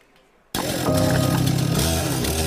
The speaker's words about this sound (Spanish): Una motosierra y varios soldados trataban de quitar los escombros y las toneladas de lodo que cegaron la vida de cinco miembros de la familia Melara Hernández en un punto escondido de Huizúcar, departamento de la Libertad